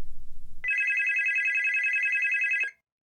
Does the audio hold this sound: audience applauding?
no